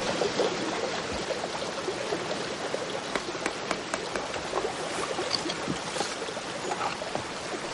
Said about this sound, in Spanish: Deja el papel en el agua y la corriente se lo lleva.